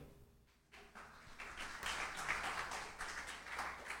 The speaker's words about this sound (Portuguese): Eu vou levantar sem botar a mão em nada, tá vendo ou não? Palmas para mim.